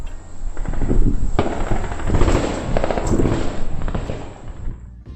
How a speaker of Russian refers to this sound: Но потом я удивился, потому что военные начали ходить здесь, и звуки уже стрельбы были слышны еще громче.